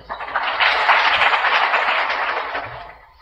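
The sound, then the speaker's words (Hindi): A crowd bursts into dense, steady applause that rises quickly, holds loud and full for a few seconds, then tapers off toward the end. No one speaks over it. “तालियां तो बजा दी लेकिन साक्षात्कार नहीं किया तुमने ये तो सुनने का पुण्य मिला और मजा मिला”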